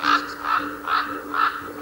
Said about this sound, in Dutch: Aan de bosrand bij de heide ontwaken de raven uit hun slaap.